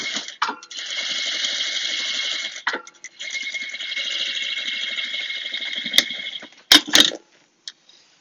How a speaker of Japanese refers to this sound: いや、でも夜にミシンやるのもね、あんま良くないのかなと思いながら。うるさいからね、音が。バリバリね。ジーパンのここだけしておりますけども。